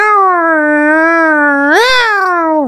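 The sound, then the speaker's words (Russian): A person's voice imitates a long, drawn-out cat meow, holding a steady tone before bending upward near the end. It is a single loud call with no other sounds. “И там просто мяу”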